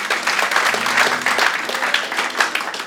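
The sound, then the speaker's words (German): Steady, dense applause from a large audience, a continuous wash of many hands clapping at once, loud and even throughout with no voices standing out. “Lass uns mal all denen, die diese Entscheidung getroffen haben, die vom Tod zum Leben hingelaufen, einen riesen Applaus geben”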